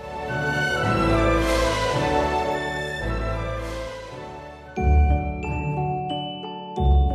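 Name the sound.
doorbell ringing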